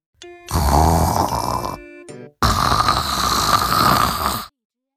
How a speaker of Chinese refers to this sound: 突然，树后面传来了呼噜声。